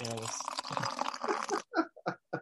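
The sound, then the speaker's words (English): A drink is poured into a glass in a steady splashing stream, then stops, followed by a few short separate gulps or clinks. “classic beverage break.”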